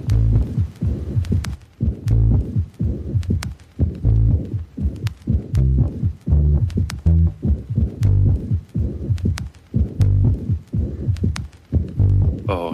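A deep, throbbing bass line pulses offbeat in a steady syncopated rhythm, loud, with faint clicking percussion on top and no voices.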